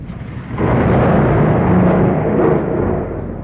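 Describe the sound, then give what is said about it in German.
A heavy night thunderstorm with pouring rain over a town: a loud, deep roll of thunder swells in and rumbles for a few seconds before fading, with faint rhythmic ticking like rain above it. “Der Himmel hatte seine Schleusen geöffnet und ein ungeheures Gewitter tobte über der TKKG-Stadt.”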